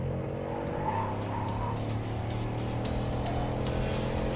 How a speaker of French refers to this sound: Bugatti montre également une vidéo permettant d'entendre le son du moteur et de rappeler qu'elle est conçue pour les virages.